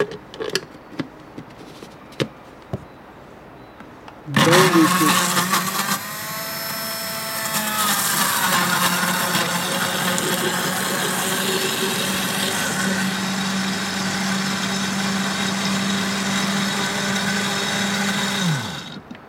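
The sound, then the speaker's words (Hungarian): A blender whirs loudly after a few soft clicks, its motor surging then settling into a steady high-pitched grind as it purees peppers with very little water into a thick mixture for pepper bread, stopping abruptly near the end. “Most paprikás kenyeret fogunk készíteni, melyhez a paprikát beledobtuk a turmixgépbe, és összeturmixoljuk egy nagyon kevés víz segítségével.”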